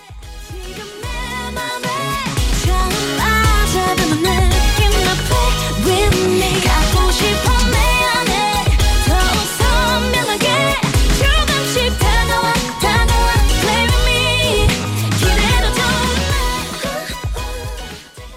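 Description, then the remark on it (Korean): A pop song plays on the radio, loud and steady, with a full, bright mix of instruments over a driving rhythmic beat that continues unbroken throughout, with no one talking. “네 그러면 노래 듣고 와서 좀 더 얘기 나눠볼게요.”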